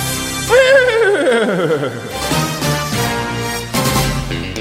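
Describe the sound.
A person imitates a horse's whinny with a loud, wavering voice that quivers and falls in pitch over about a second and a half, followed by steady background sound.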